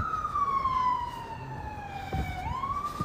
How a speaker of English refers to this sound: And the first thing I did was, oh God, an ambulance is going by.